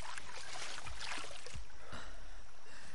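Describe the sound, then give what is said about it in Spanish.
Water is scooped by hand and splashed onto arms in a few soft, irregular splashes, with a running trickle of water between them and no one talking. “Mowgli se echa agua en los brazos.”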